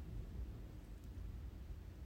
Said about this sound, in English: Thunder and lightning in this motherfucker. T storms is coming.